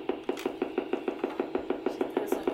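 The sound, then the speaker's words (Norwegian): A steady train of sharp clicks from recorded nerve impulses used by the brain, one click per impulse, from a video shown by brain researcher Johan Fredrik Storm of the University of Oslo, roughly six per second, evenly spaced and fairly loud over a faint background hum, with no talking. “Så det er et utslag for hver sånn impuls, dette er en nerveimpuls eller, som brukes i hjernen til å kode alt vi både føler og tenker og, og, og, og gjør”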